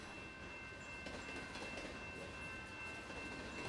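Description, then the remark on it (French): A freight train rolls past on the rails in Kamloops with a steady, dense rumble and faint clatter of wheels, loud throughout, with a thin high whine riding on top and no voices. “Beaucoup de trains passent par Kamloops, notamment des trains de cargaison qui transportent du charbon, du bois et des marchandises”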